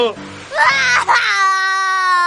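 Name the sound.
loud crying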